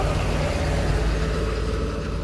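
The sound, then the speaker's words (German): A fire brigade vehicle drives past along a footpath, a steady low engine rumble filling the short stretch without any voices over it. “Sie haben einfach nur blöd aus dem Auto geguckt”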